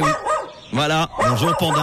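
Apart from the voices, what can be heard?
dog barking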